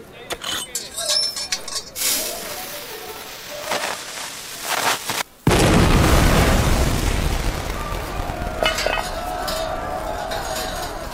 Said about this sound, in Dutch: Daar stoppen we brandend karbiet in. We doen de deksel erop. En dat geeft een enorme knal.